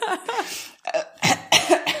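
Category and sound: human body sound, cough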